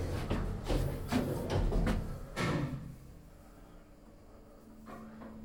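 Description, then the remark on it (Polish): An elevator arrives without waiting, with a burst of rattling, sliding-door clatter over the first few seconds, then settles into a low, steady mechanical hum with a brief faint click near the end. “O, akurat winda przyjechała, super.”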